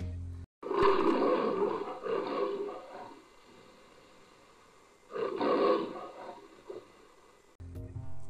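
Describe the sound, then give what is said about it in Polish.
A lion roars twice, loud, each deep, rumbling roar lasting a couple of seconds and trailing off into low grunts, with a brief lull between them. “Tylko zabierzcie tego lwa.”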